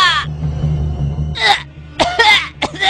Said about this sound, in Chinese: 老刘头被勒得直咳嗽。